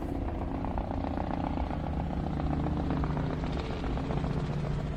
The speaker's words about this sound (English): Helicopters coming around again to act the fucking bollocks. Can hear them in the distance. Here we go, choppy bastard.